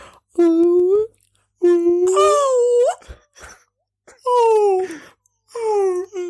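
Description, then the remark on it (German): A person mimics whale song with four long, sliding wails, each rising or bending in pitch, separated by short pauses and soft breaths. The voice is fairly loud. “hörst du die Wahlgesänge?”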